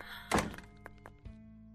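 A door swings shut with a solid, low thunk, followed by a couple of light latch clicks and a softer second bump as it settles. No one speaks.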